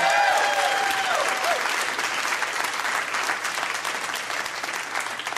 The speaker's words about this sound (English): Round of applause for that gentleman. He's very amazing.